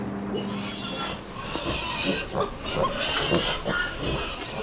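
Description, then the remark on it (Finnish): A sow and her piglets grunt and snuffle continuously in a pen, with overlapping short grunts and squeaky piglet noises against a steady, busy barn background. “ne on ollut tossa tissillä ja ne on nukahtanut tohon, tohon, tota, tissille”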